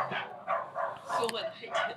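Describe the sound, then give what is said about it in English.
Dogs bark over and over in quick succession, about five sharp, moderately loud barks in two seconds with short gaps between them, echoing a little as if outdoors. “And, um, those dogs are going to sound really good on the, the podcast.”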